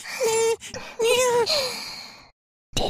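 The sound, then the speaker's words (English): A voice imitates the sex noises of an anthropomorphic bunny character in a cartoon: three breathy, drawn-out moans with wavering pitch, fairly loud, followed by a brief silence and the start of another sound. “I know you guys are all horned up from the anthropomorphic bunny sex noises”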